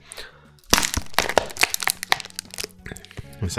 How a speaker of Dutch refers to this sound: Ik neem nog een laatste slokje. En dan ga ik het flesje kraken.